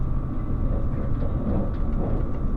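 The Relay Kamome No. 3 limited express train, running from Hakata to Kōhoku, rolls into platform 1 with a steady, low rumble and a faint sustained hum, continuous throughout with no voices.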